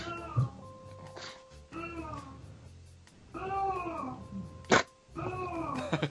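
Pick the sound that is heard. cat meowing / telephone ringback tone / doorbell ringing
cat meowing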